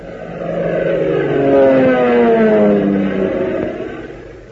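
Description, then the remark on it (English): A propeller plane engine drones steadily, its pitch sliding slightly downward as it swells louder in the middle and then eases off, with no voices. “Say, doesn't the sound of that plane motor do something to you?”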